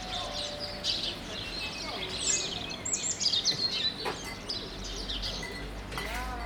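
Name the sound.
birds singing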